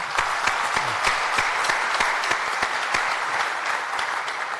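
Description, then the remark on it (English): Steady applause from a crowd, many hands clapping in a dense, even patter that holds at a fairly loud level throughout without building or fading. “Round of applause, ladies.”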